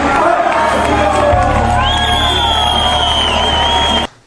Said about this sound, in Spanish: a recibir de pie con un gran aplauso nuevos diamantes de Colombia